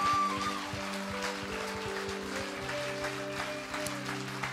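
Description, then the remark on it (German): An audience in a church in Germany stands and claps for Jesus, steadily and densely, a loud wash of many hands, while sustained organ-like chords hold and shift beneath the applause. “Lasst uns aufstehen auf unsere Füße und Jesus den großen Applaus geben.”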